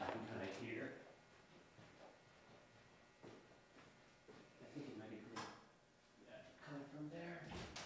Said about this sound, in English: Let me just close one other door to see if this helps.